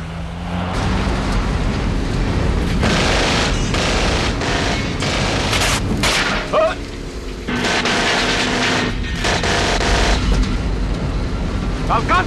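Loud, sustained bursts of machine-gun fire from a James Bond film scene, Sanchez shooting at Bond on a tanker truck, rattle over a roaring vehicle engine, with a brief lull midway before the shooting resumes in rapid volleys.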